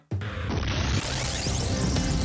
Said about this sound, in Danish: Og så kan man spille de her forskellige øh, jingles undervejs som du kender, hvis du lytter til, til podcasten. Og det er normalt det, jeg sidder lagt ind i, øh, i post-production, altså øh, lagt de her breaks ind undervejs.